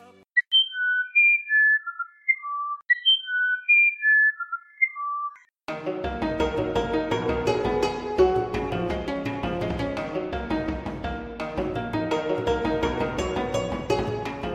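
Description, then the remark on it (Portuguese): Clear, flute-like song of the Amazonian irapuru bird: two phrases of pure whistled notes stepping up and down, heard alone, before full instrumental music abruptly takes over. “O seu canto é longo e melodioso, parecido com uma flauta, e só é ouvido ao amanhecer ou ao anoitecer, quando ele constrói o ninho para a fêmea durante apenas 15 dias por ano.”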